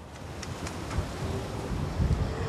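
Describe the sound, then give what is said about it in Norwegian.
Gusty wind buffets the microphone in low rumbling bursts while a steady hiss of autumn rain fills the background, with a few brief sharper patters, on a grassy hilltop viewpoint by the harbour in Reykjavik, Iceland; no voices. “Det er vind, høstregn og mer vind når vi blåser opp på en gresskledd høyde.”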